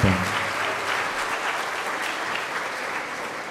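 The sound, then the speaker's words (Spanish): A crowd applauds steadily for children after their performance, a dense wash of many hands clapping at an even loudness throughout, with a brief low voice-like tone at the very start. “Un aplauso, se lo merecen.”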